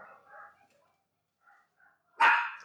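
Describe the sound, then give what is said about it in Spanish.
A dog named Phoebe barks: a few soft, muffled yelps early on, then one loud, sharp bark near the end. No one speaks. “Ok, vamos a un corte en lo que Phoebe termina de ladrar y ahorita regresamos.”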